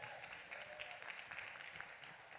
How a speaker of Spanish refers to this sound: Deme un aplauso a estos super servidores, por favor.